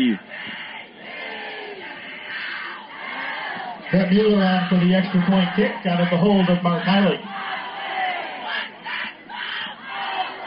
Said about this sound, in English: you can hear the Ubley chants have started as Mueller on for the PAT